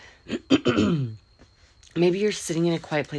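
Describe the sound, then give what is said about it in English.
A single rough, gravelly throat clearing, fairly loud, followed by a short pause before a man starts talking calmly. “Excuse me for having to clear my throat, okay?”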